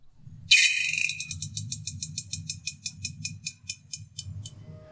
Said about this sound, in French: Ils ont ainsi pu observer que chaque nuit, les harengs commencent à péter avec un son aigu et de manière répétée.